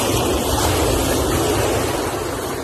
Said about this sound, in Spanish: El mar, ¿no? está cerquita las olas, sí. No, muy bonito el mar, estar allá en Oaxaca, ¿no?